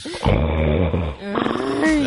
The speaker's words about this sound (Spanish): Ah, ¿qué es eso? Tiene, ya se cansó. Como que tiene asma, ¿no? Es el hombre. Ay, Dios. Ah, es un ronquido. Ah, eh. ya ves. Los famosos ronquidos.